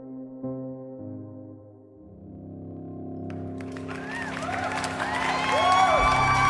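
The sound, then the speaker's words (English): A crowd being addressed at noon breaks into loud cheering and whooping that swells and stays strong through the end, rising out of a steady low droning tone at the start. “At noon the next day, the penguin addressed a cheering crowd.”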